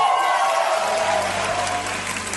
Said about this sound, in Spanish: Antes que nada, quiero agradecer este aplauso tan maravilloso que me ha emocionado hasta las lágrimas.